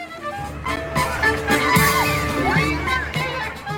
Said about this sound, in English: Let's go back to 2022. People in Highland Park, Illinois, with their kids, enjoying a 4th of July parade, celebrating the birth of this nation.